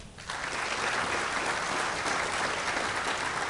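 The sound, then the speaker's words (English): An audience applauds to vote in a poll, marking a science claim about E. coli as the fiction: a dense, steady wash of many hands clapping that swells within the first moment and holds at an even, fairly loud level throughout. “Those who think the E.”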